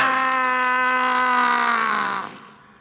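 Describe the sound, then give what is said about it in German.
A man lets out a long, loud, hoarse scream that strains and wavers before trailing off into a groan, sustained for a couple of seconds with no talking. “Oh mein Gott, der muss so heiser gewesen sein am nächsten Tag.”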